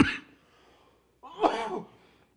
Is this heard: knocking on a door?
no